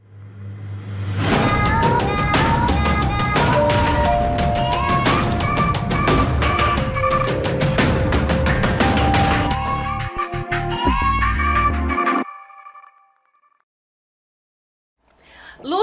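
A loud, upbeat intro jingle plays for about eleven seconds, with a steady percussive beat and bright melodic lines, then cuts off into a brief near-silence.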